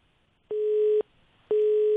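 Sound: busy tone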